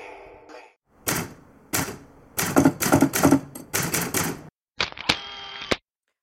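Crisp typewriter keystrokes strike in irregular bursts, clacking loudly, then a carriage bell dings and the return lever ratchets at the end. No voices are heard.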